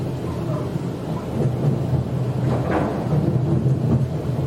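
A steady, continuous low rumble and rushing noise from inside a moving Sydney Trains commuter train on the City Circle via Town Hall service, fairly loud and even throughout, with faint rattles rising briefly in the middle and no voices.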